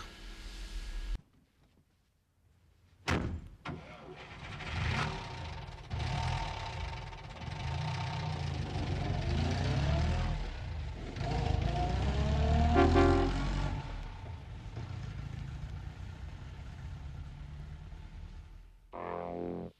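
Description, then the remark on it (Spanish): After a brief silence and a sharp clunk, a car engine cranks to life and settles into a steady rumble, revving up and down once or twice before idling on, as a person who has left their house gets into their car and starts it. “empieza con una persona que sale de su casa y se mete en su coche y empieza la cosa así”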